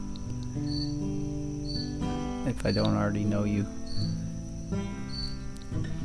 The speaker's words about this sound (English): it's me and the crickets